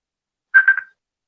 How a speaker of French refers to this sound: Excusez-moi, c'est le téléphone qui sonne.